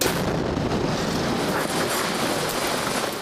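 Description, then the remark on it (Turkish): A tanker truck explodes after a gas leak, roaring loudly and continuously, a dense, rumbling wall of blast noise with crackling bursts that holds steady for the whole stretch, with no voices. “Çok geçmeden tanker bomba gibi patladı.”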